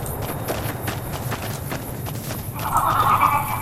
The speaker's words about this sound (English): Oh, what was that? Hear that up on the ridge behind me there? We got some geckos to clear out. Geckos? Bunch of little monsters is what they are.